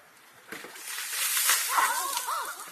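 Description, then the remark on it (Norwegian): A bucket of ice water is poured over Tesla founder Elon Musk for the Ice Bucket Challenge. It sloshes down in a loud, hissing rush lasting a couple of seconds, followed by his startled, wavering yelps as the water keeps splashing. “Vi hører nedkjølingen av Tesla-gründer Elon Musk, en av de tre Bill Gates utfordret.”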